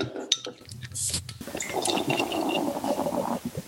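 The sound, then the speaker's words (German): Schneider Weissbier Aventinus beer pours into a glass, a steady gurgling stream with a few faint clinks at the start, continuing for several seconds with no talking. “so mein erster Eindruck jetzt, wo ich es eingeschenkt habe, was ich wirklich sehr bemerkenswert finde”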